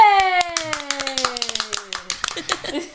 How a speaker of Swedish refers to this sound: Välkommen, en liten applåd nästan. Yay!